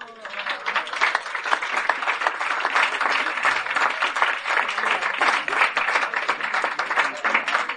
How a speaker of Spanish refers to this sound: Un aplauso.